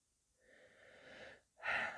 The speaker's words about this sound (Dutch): Ademen. Ik zou het bijna vergeten in deze podcast.